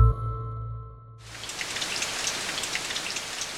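A low humming tone fades out, then heavy rain suddenly fills the soundscape with a dense, steady hiss of countless drops pattering on a surface, continuous with no voices. Very heavy rain falling in the AMBA (Buenos Aires metropolitan area), Argentina.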